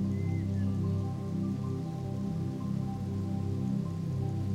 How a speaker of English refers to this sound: See if you can imagine yourself sitting in this pool of calm water. You can hear the sounds of small waterfalls all around you. Water flowing peacefully.